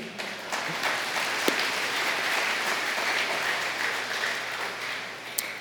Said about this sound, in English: Un seul monde qui applaudit, qui dit Amen, merci.